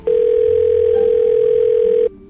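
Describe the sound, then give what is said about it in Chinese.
A steady telephone dial tone, as a call is being placed, hums at a single mid pitch for about two seconds, loud and unbroken, then cuts off abruptly, with faint low rumble underneath. “要不我们打电话问问大友叔叔吧？”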